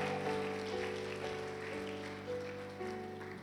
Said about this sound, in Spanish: Se va a aplaudir, aplauda fuerte, pues.